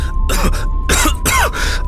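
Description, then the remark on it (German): A voice acts out a short coughing fit after taking a large sip of tea: three harsh, throaty bursts in quick succession, fairly loud, with no talking in between. “Lächelnd gönnte sich Matthew einen großen Schluck, hielt ob einer jähen Einsicht inne und hustete”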